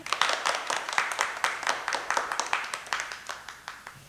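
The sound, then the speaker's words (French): A brief burst of applause for the Beautrelets in an Arsène Lupin audio drama. A small group claps many hands in quick, irregular overlapping claps at steady moderate loudness throughout, with no voices. “On applaudit les Beautrelet”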